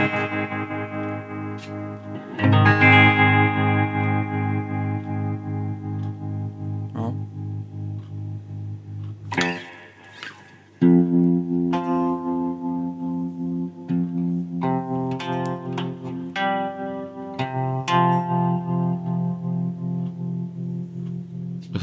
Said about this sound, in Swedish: För att när man lyssnar på det här tremolot. Ta lite lång... Ja, just det. Eller långsammare hastighet.